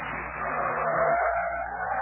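A car pulls up and stops outside a vacant building with two police cars in front, its engine and tires making a steady, rough rushing noise with a slight squeal as it slows. No one speaks.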